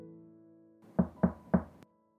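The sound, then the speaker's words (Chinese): Three firm knocks on a wooden door, as the fat king knocks at the witches' door in a story: evenly spaced and fairly loud, with low, hollow thuds over a faint sustained musical tone. “胖国王深吸了一口气，敲敲门”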